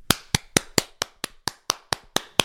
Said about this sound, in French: Et on va m'applaudir une deuxième fois. Attendez, je pose le micro, je m'applaudis.